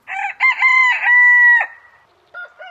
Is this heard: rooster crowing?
yes